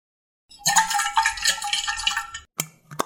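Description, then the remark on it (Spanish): Heated water is poured into a mate gourd to renew the yerba, in a steady stream for about two seconds, followed by two short, hollow knocks as the vessel is handled. “Momento de calentar más agua y renovar la yerba.”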